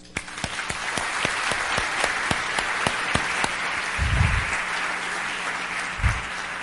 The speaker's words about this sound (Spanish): Un aplauso a todos ustedes.